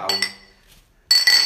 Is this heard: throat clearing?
no